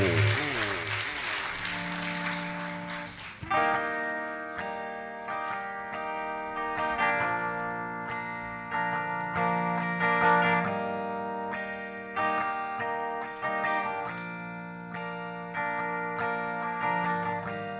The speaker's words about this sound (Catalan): passem a escoltar un dels CDs que només es pot aconseguir via internet – Parlem del CD en directe …